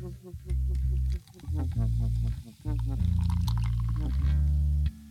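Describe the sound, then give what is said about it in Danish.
Beer pours into a glass in a steady stream, with deep, gurgling glugs that come in a few surges over several seconds. “Det er også en god grund til at drikke en øl.”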